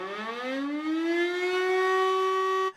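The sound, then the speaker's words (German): A loud emergency siren winds up from a low pitch to a steady high wail, holding its tone for nearly three seconds before cutting off abruptly, with no voices. “Wenn wir dieses Geräusch hören, kommt ja eine bestimmte Aufgeregtheit dazu.”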